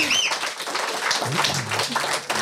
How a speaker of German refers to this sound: Und ich würde sagen, wenn wir da gerade live vor Ort sind in Wiefeld, dann bitte ich euch um einen riesengroßen Applaus für den